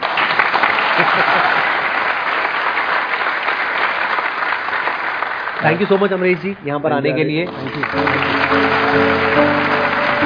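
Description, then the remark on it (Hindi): A crowd claps in a dense, steady burst of applause for several seconds; then a man starts speaking while the clapping continues more faintly underneath. “अच्छा लगा तो तालियां बजा दो”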